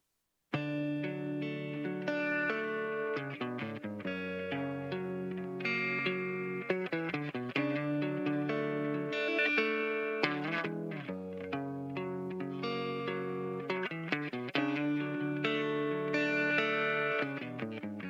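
An electric guitar plays a melodic, chorus-tinged rock intro of ringing chords and picked notes, steady and up close throughout, with no singing or talking.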